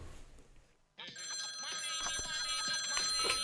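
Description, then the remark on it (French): A short radio jingle kicks in after a brief lull, led by a bright, insistent telephone ring with sustained high tones over a busy musical backing. “Il nous avait manqué ce jingle.”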